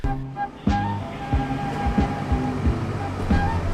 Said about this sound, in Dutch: Toen stonden we op het station en toen kwam er een dienstmededeling. Dus wij stonden, let op, wij stonden op het station.